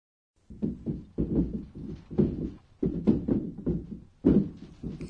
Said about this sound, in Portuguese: Esse é o som de móveis balançando durante um terremoto. Em japonês, existe uma expressão que descreve isso. Gata gata. Gata gata. Indica que estantes e mesas balançam levemente.